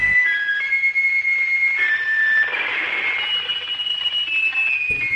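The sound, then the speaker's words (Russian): A high, thin electronic signal tone transmitted from an artificial satellite of the Moon, carrying the melody of the Internationale party anthem, steady and slightly wavering over a bed of radio hiss, continuing for several seconds with no voices. “А как же сигналы подавали?”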